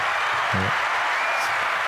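A crowd cheers and claps in a dense, steady wash of applause that fills the whole moment, with a brief voiced shout rising out of the noise early on.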